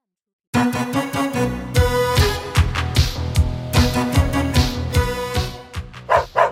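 After a brief moment of silence, dogs bark loudly and rapidly in a dense, overlapping flurry, continuing without pause to the end.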